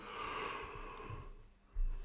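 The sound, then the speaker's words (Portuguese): A single breathy yawn, a long airy drawn-out exhale that fades over about a second, followed by a brief low thump. No speech. “É bocejeiro, é bocejeiro.”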